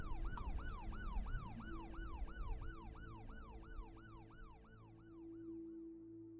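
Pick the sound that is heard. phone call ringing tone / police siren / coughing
police siren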